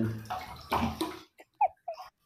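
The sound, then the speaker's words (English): Water sloshes and splashes in a filled bathtub as a person bathes in it, a broad wash of noise followed by a few short, bright splashes and drips, fairly quiet. “Yes, I'm actually in the bath, listen.”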